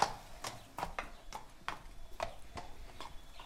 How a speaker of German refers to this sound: Ein kleiner Pferdehof am südlichen Stadtrand Berlins. Auf einer eingezäunten Wiese stehen fünf Pferde